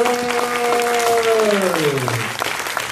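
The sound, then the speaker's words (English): An audience at Ba-Con claps steadily and loudly throughout, with a long drawn-out cheer or whoop that slides downward in pitch over the applause before fading. “Let's give a big round of applause and thanks to our boys”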